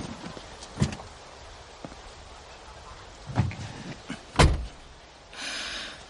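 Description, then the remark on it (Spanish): A man gets into a car outside: a few soft thumps and rustles, then a solid door slam, followed by a brief mechanical whir like an electric window moving, against faint background noise. “Sube al coche.”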